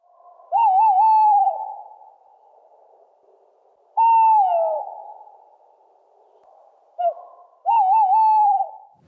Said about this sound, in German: ich bereite mich noch vor, ich spiele ihn einmal ab. Waldkauz Go.